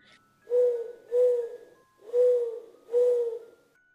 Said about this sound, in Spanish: Ya, pero se nos está arrancando la lechuza.